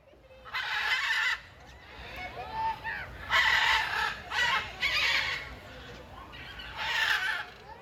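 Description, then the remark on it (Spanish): A macaw at a zoo squawks loudly and harshly, letting out about five raspy, drawn-out screeches in an irregular series with brief gaps between them. “realmente nunca había tenido la experiencia de escuchar una guacamaya como lo hice este pasado fin de semana.”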